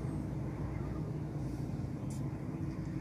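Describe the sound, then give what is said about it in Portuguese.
Steady low engine rumble from inside a car creeping through slow city traffic, with a Coca-Cola truck idling as it blocks the road and holds up all the traffic, and the muffled hum of surrounding vehicles, continuous and fairly loud throughout. “É, tem um caminhão da Coca-Cola que travando o caminho, segurando o trânsito todo que beleza, hein?”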